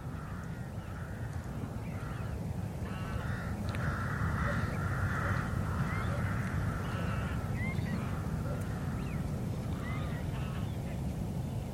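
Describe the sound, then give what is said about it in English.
A large winter roost of rooks, black birds of the crow family gathered in the thousands, caws continuously at Buckenham Marshes, a marshland and reed bed, a dense chorus of overlapping harsh calls from many birds at once, some louder, over a steady low rumble of background noise. “I'm welcomed by a roost of rooks, a black feathered bird in the crow family, who gather here in the thousands during the winter months.”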